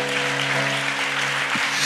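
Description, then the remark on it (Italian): Steady, dense clapping from a crowd fills the whole stretch at a fairly loud level, with a faint sustained tone humming underneath. “Fallo questo applauso se lo devi fare.”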